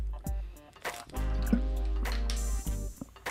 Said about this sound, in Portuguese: Bebi uma água aqui, tô falando bastante.